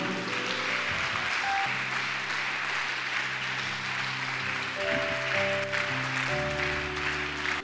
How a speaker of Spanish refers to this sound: En el nombre de Jesús, el mejor aplauso que le puedas dar al Señor.